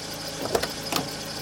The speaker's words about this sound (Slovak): Pri škole v Dube na Morave o druhej hodine rannej zastaví taxík, ktorý si Dušan zavolal z telefónnej búdky.